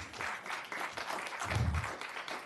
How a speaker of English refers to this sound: You can clap, we can clap for him all the way up.